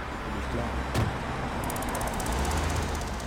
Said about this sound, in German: Lubi sieht, wie der Anwalt in seinen Wagen steigt und davonfährt.